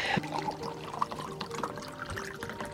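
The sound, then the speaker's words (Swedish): Brämhults lemonade is poured steadily into a glass for a few seconds, a continuous gurgling splash with a ringing tone as the glass fills. No one speaks. “Men plingar jag tre gånger, och det kommer jag göra flera gånger under dagen då vill jag ha ett glas iskallt Brämhults lemonade.”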